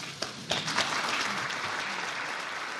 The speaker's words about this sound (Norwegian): klapping for kronprinsessen i Frankfurt i går kveld.